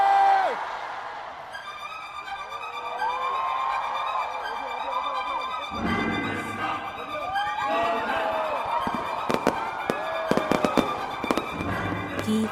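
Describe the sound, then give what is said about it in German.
A rapid barrage of thundering fireworks booms and crackles at 9 o'clock to officially open the 2017 Incheon Pentaport festival, with sharp bursts clustering toward the end, over a steady wash of crowd noise and rising, wavering cheers and whoops. “Um 9 Uhr schließlich startet das Festival offiziell mit einem donnernden Feuerwerk.”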